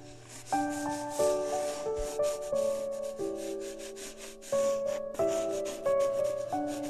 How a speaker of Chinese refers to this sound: QQ 猪自己认真的拿着蜡笔，边看着《美梦森林》绘本，边认真的。画呀画，涂啊涂。